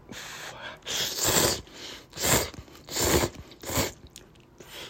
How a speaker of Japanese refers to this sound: はい。じゃあちょっといただきますね。はい。咀嚼音がしますんでご注意ください。